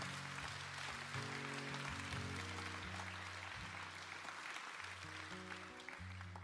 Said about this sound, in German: Gib mal allen einen fetten Applaus, die sich einfach entschieden haben.